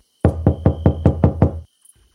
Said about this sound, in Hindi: दोनों उस घर की सीढ़ियाँ चढ़ के ज़मीन से एक डेढ़ फुट ऊपर ऊंचे लकड़ी के घर के दरवाजे को खटखटाने लगे